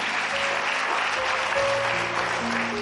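In the morning, an audience applauds Jesus steadily, a dense wash of many hands clapping continuously, with faint tonal music underneath and no talking over it.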